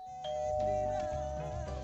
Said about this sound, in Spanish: tengo más soniditos, ¿eh? Tengo más soniditos por algún sitio. Mira, tengo, tengo un timbre.